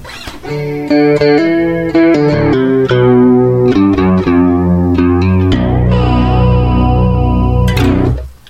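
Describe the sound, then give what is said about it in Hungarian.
Electric guitar played through a simulated Vox AC30 amp with an added chorus effect, a run of bright picked chords and notes with a shimmering, wavering tone, ending on a long sustained chord that rings out. “De nem ez a lényeg, hanem hozzáadok mondjuk egy kórust.”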